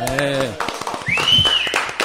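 Brief, scattered applause from a small group, with close claps rattling for about a second and a half after a short vocal sound, and a high whistle or whoop rising over the clapping.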